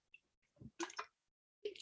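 A quick sip of water, a few short wet slurping and swallowing sounds spaced over a couple of seconds, fairly quiet with no talking.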